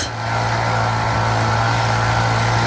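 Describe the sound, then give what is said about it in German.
A leaf blower clearing leaves runs steadily with a loud, continuous engine drone and a broad windy rush layered over a low humming tone, holding level throughout with no voices. “Sie sind wieder unterwegs, die fließigen Männer und Frauen, die das Laub wegräumen.”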